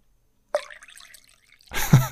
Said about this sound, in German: Auch nur so ganz kurz. Ja, nee, das war nur ein Zwischenpisse.